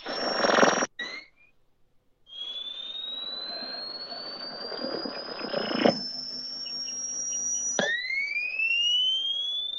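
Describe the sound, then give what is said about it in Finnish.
Long-wave (LW) radio reception on an old radio: a steady, slowly rising whistle tone over crackling static, with brief dropouts and a second sweeping tone that jumps in near the end. No one speaks. “Joo, tää huutaa tää tota LV, eli siis pitkiä aaltoja.”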